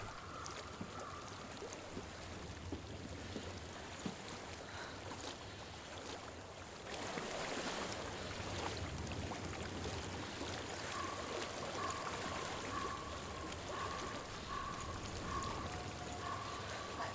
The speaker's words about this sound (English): What do you hear? I hear water. Go to it.